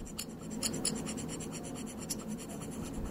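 A small metal dental scraper tool scrapes repeatedly across a hard tabletop, producing a steady series of short, gritty strokes, with no talking.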